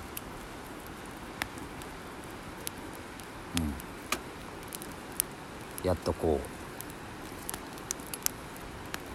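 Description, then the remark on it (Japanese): A campfire of thick broadleaf oak wood burns steadily in Sendai, Japan, with soft, scattered crackles and occasional sharper pops over a low hiss, while a man murmurs a few brief words. “火らしい焚き火らしい火ができてきたかなっていうそんな感じの日を一人で眺めてます。”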